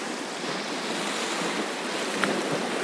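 nature, strong ocean waves crashing

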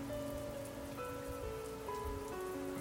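nature, rain falling

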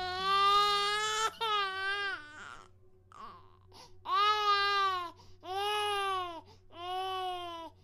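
sound effect, baby crying

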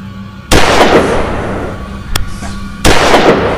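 sound effect, gunshots being fired

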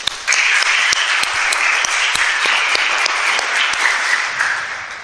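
crowd, audience round of applause

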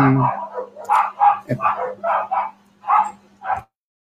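animal, dogs barking

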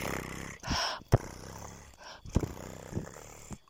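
animal, cat purring

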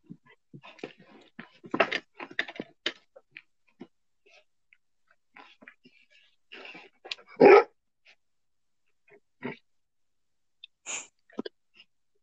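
animal, dog barking

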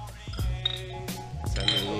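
household object, glasses clinking

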